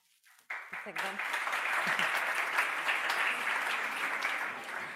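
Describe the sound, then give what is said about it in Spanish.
An audience bursts into sustained applause for an answer during a live talk, a dense, steady wash of many hands clapping, with a brief voice at the very start before the clapping takes over. “A mí me encanta, os dais cuenta que estáis aplaudiendo cada respuesta.”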